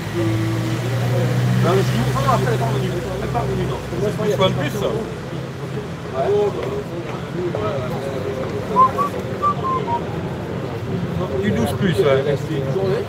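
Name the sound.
bus arriving at stop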